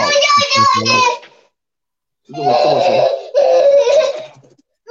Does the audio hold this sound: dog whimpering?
no